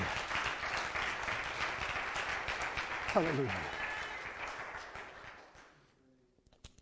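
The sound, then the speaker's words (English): A crowd breaks into sustained, dense applause, giving the Lord a hand clap, with a voice calling out briefly in the middle before the clapping gradually dies away into quiet. “If you believe that, give the Lord one more hand clap, please.”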